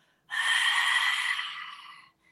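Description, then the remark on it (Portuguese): A single long, throaty exhale through a constricted glottis, a calming breath like breathing to fog a pane of glass, a steady hiss lasting about two seconds, then quiet. “Então, a gente encontrar essa respiração, às vezes, uh, é um desafio, mas fazer isso como se a gente fosse embaçar um vidro,”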